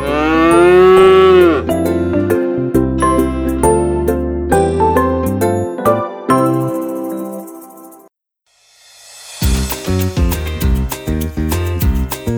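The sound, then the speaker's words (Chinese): A loud, drawn-out cow moo opens, followed by a run of repeated lowing calls, a brief silence, then more moos and rhythmic sounds. No one speaks. “我是肉牛，我也超有用的”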